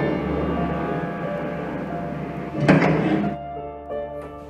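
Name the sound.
elevator doors closing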